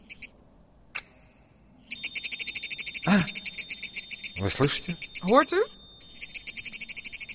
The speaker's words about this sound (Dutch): Реакция на стресс. Wat u hoort is de reactie op stress van de plant.